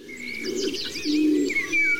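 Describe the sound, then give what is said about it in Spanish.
Birdsong fills a forest soundscape in Garajonay Park on La Gomera, Canary Islands: bright chirps and warbling calls overlap above a low, steady cooing of doves, with no voices, at a constant moderate level. “Este es el Parque de Garajonay, en La Gomera, en Canarias, que suena así.”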